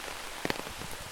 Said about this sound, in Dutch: En dit is het geluid van de regen, die strak getuimd begon toen ik hier de auto uitstapte.